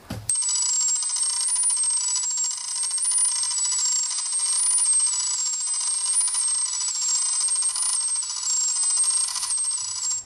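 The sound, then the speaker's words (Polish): Shrill, piercing electronic telemetry tones from an analog weather radiosonde of the kind once used at Legionowo, warbling steadily in pitch over a hissy radio background, loud and unbroken for about ten seconds with no voices. “Kiedyś legionowo używało tych sond analogowych, o których wspomniałem. Słychać było mniej więcej tak.”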